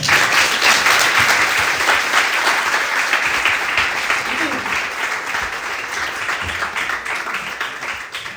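Sustained audience applause, a dense wash of many hands clapping at a steady, loud level that fades only slightly over about eight seconds, with no clear voices standing out.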